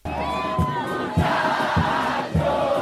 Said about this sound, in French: L'Argentine n'en finit plus de chanter son titre mondial. Mardi, ils étaient près de 5 millions dans les rues de Buenos Aires pour fêter le retour de leur héros, drapeau bleu, ciel et blanc noué autour du cou.